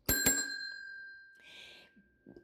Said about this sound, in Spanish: no me quiero ir y el timbre ya me ganó